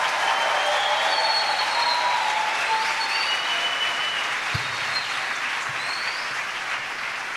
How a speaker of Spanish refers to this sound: Si yo fuera usted, aplaudiera y me emocionara un poquito más.